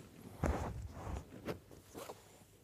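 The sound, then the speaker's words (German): A dog breathes and snuffles into the microphone, three or four short, breathy puffs, fairly loud, with no one talking. “atme mal in den Hörer.”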